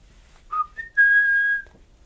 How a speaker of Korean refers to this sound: 그녀가 썩소를 짓고 기분 나쁜 휘파람을 부는 순간 난 문득 대학 시절 그녀가 떠올랐다.